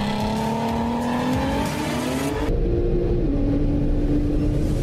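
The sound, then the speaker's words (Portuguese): A powerful supercar engine roars continuously and loudly, its pitch climbing and shifting as it revs, with a heavy low rumble underneath and no talking, at a half-mile drag event at the Santos air base in Guarujá. “É o Meia Milha Solidária Full Power, um evento que reúne supercarros e também uma ação social para ajudar o Fundo de Solidariedade do Guarujá.”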